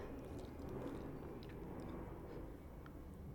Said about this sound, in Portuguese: Está a passar um avião, não sei se estão a ouvir. Vamos deixá-lo passar.